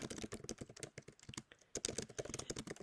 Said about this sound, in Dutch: Ik eh, ben ondertussen aan het meetypen trouwens af en toe. misschien hoor je dat, misschien ook helemaal niet.